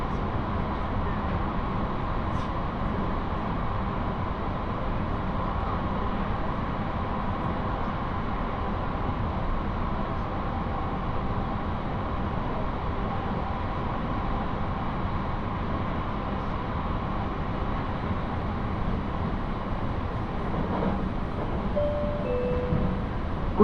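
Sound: passenger train running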